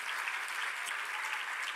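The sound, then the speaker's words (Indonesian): A church audience claps steadily together in praise of Jesus, a dense, sustained wash of applause with no voices, holding an even loudness for the whole stretch. “Yang percaya itu berikan tepuk tangan bagi Tuhan kita Yesus.”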